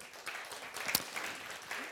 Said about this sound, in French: Oui, on peut l'applaudir, oui.